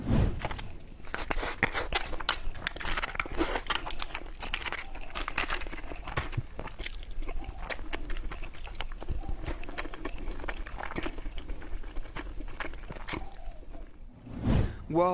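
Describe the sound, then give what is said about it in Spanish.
ASMR eating sounds: dense, crisp crunching and crinkly chewing noises repeating irregularly throughout, loud and intimate, with no one talking. “Pero ahora amigos vamos a escuchar algunos audios que se hicieron virales esta semana y comencemos por este de alguien que está comiendo, así que cierren los ojos y escuchen.”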